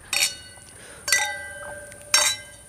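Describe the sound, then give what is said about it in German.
Three bright clinks of glasses touching in a toast, spaced about a second apart, each leaving a clear ringing tone that lingers and fades. Fairly crisp, with no talking. “Na, und normalerweise würde ich mal sagen Prost.”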